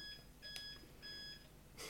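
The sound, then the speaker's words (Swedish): A dishwasher beeps in a short electronic pattern: steady high-pitched tones switching on and off a few times, with a brief noisy burst at the end and no talking. “Ja, nu var det diskmaskinen.”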